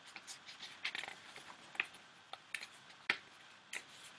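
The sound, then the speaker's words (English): Quiet rustling as sheets of paper are pulled apart, with scattered crisp crinkles and a few sharp papery snaps over about four seconds, no talking. “Sorry, all right, just got my paper separated.”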